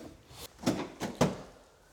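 The rear door of a fire brigade multipurpose vehicle is opened with a short series of metallic clunks and latch clicks, two louder knocks standing out, in a garage also used as a wash hall, with no talking.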